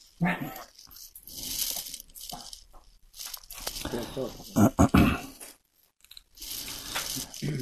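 A dog named Chapo whines and grumbles in uneven bursts, then lets out a few loud, sharp barks before settling back into softer whimpering.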